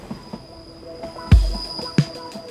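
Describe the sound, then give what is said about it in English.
A train heading to Washington in October 1907 rolls along the rails with a steady rumble, punctuated by two heavy clunks of wheels hitting track joints and a faint high whine from the wheels. “So, in October 1907, Johnson and his allies got on a train and headed to Washington.”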